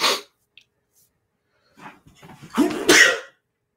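A single fairly loud sneeze, preceded by a few halting, gasping inhales that build up before the sharp, breathy burst, with a short puff of breath at the very start.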